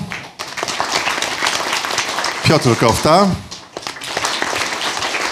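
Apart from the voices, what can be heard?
audience applause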